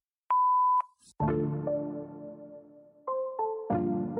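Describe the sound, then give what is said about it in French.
A single steady electronic voicemail beep, following a recorded French phone message saying the person cannot be reached, sounds clearly for about half a second, followed by a rich, sustained musical chord that shifts pitch a couple of times. “Veuillez laisser un message après le signal sonore.”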